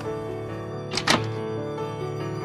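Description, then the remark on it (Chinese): A door is opened by a woman who has shouldered her bag, with a short pair of wooden thunks and latch clatter about a second in, set against a steady, sustained musical tone that continues underneath throughout. “夏莹莹背起包，走到门边，打开门。”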